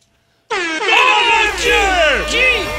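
A loud, sustained horn-like buzzer blast sounds after a brief silence, a golden buzzer effect on a TV game show, with rich harmonics and wavering pitch, lasting over two seconds.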